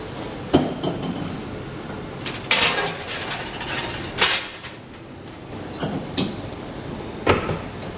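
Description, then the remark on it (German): The heavy metal door of a baking oven, preheated to about 220 degrees, clanks open, then a trolley loaded with meat pies (Pasteten) rattles and rumbles in over several seconds, with sharp metallic bangs and a hiss; nobody speaks. “Wir würden jetzt die Tür auftun. Dann kommt der Wagen voll mit diesen Pasteten rein.”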